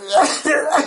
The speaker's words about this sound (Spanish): que estoy tosiendo.